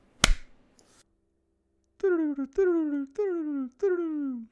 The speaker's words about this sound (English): Alright, and with the magic of editing, I'm going to clap, and then we'll see you back here in a couple days.